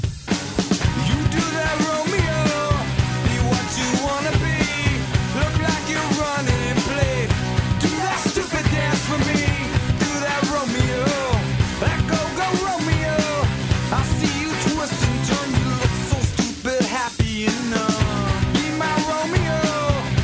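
A 1990s rock song plays loudly and continuously, with a sung vocal line over full band backing of guitars and steady drums, briefly thinning out near the end before surging back.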